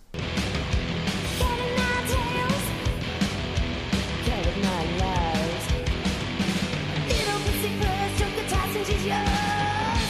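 A loud, dense rock song from a band's first album plays throughout, with pounding drums, distorted guitars and shouted, yelling vocals riding on top at a steady, driving pace.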